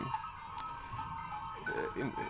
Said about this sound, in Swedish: ett ställe i Spanien med massvis med får. Men det som är speciellt och det ni hör, att fåren är helt tyst. Får brukar bräka rätt mycket. Det är liksom hundratals får som bara rör på sig.